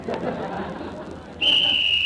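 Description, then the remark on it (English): A referee's whistle cuts in with a single loud, sustained shrill blast at the start of a football game's second half, before Flash Benny's Flatfoot team kicks off, rising over the steady murmur of a crowd that fills the moments before it. “and there's the whistle.”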